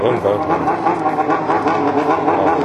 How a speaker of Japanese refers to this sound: またこの街には俗っぽいバイクを1人でブンブン